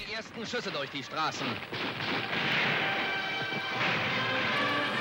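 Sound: gunshots fired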